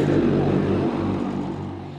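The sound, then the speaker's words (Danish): A small white Chinese passenger drone taxi, a bean-shaped capsule, spins up its rotors and lifts off, whirring loudly in a dense, steady roar with low humming tones underneath, the sound easing off slightly toward the end. “Roserne varmer stille op på den. Det er en lille, den kinesiske drone, en lille øh, hvid øh, kapsel, det ligner nærmest sådan en eller anden lille bønne, så begynder der at komme fart over færdet.”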